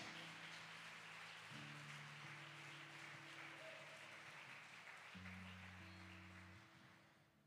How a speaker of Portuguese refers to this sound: aleluia, aplauda ele bem forte.